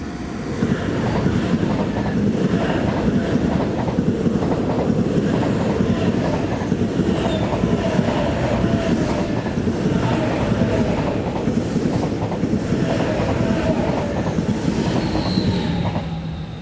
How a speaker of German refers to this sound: Das war der ICE aus München. Genau. Später Bahnhof Frankfurt-Sachsenhausen, weil wir sind hier im Stadtteil Sachsenhausen.